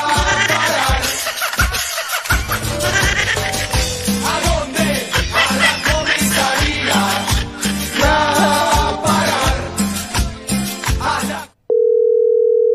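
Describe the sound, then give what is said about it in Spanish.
Loud, dense music fills almost the whole clip, then cuts off abruptly to a steady, mid-pitched phone tone: a busy signal from a rejected call, holding for about a second at the end. “No, que está rechazando la llamada, está, está llamando grave a su familiar.”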